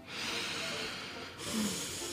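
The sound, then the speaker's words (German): A deep, airy breath drawn in, a broad rushing hiss that swells, briefly dips, then continues as a second long inhale without any talking. “Wir atmen jetzt mal alle tief ein”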